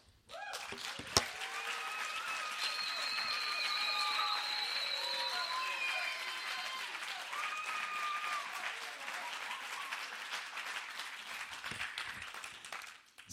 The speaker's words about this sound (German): Und jetzt könnt ihr Gott Applaus geben, bis ich das Zeug angelegt habe.